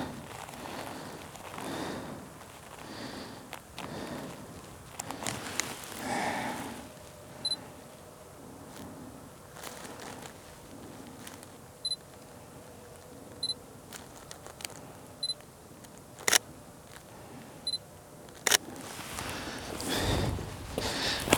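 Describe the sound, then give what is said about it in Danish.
Camera shutter clicks fire one at a time at irregular intervals while photos are taken in the dark of a lit tree. The clicks are sharp and fairly loud, over a low rustling background with occasional shuffling and breathing sounds. “er det svært at få et billede af, fordi at der er så mørkt, så selvom der er lys i træet, bum, så er der stadig ikke nogen, der fyrer kanonslag af.”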